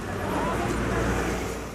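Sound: street traffic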